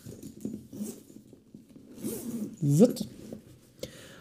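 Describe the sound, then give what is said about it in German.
A zipper on a large bag is pulled open in several quick, ripping strokes, with a louder rising burst near the end, followed by soft rustling of fabric. “Jetzt geht's ans Eingemachte. Wir machen jetzt die große Tasche auf.”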